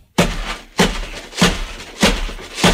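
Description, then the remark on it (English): A Trapper Keeper binder full of tacks, used as a homemade instrument, is struck like a drum: five loud thumps in a steady beat, each followed by a short rattling buzz, with no voices. “Paw Patrol Trapper Keeper full of tacks. And that is you put it on your drum.”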